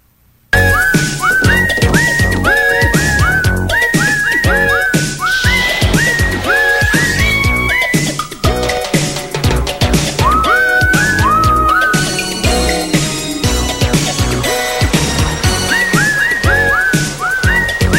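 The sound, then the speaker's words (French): Someone whistles a bright, sliding tune that runs nearly the whole time, riding on top of a loud, full backing track with a steady beat and no singing. “Moi siffler tout le long.”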